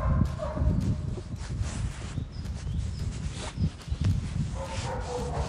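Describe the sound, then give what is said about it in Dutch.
Two dogs: one barks over and over while the other makes high, whining yelps between the barks, fairly loud against a rumbling background. “Het een blaft continu door. En de andere doet woe, woe, woe, woe, woe.”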